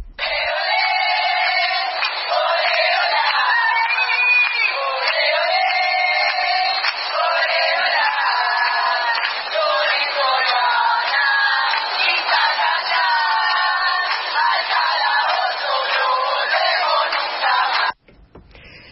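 A crowd at a protest march against travesticidios, the killings of travesti and trans people, chants loudly and continuously, many voices rising and falling together in a rhythmic, repeated pattern with sustained shouted tones, then cutting off abruptly near the end.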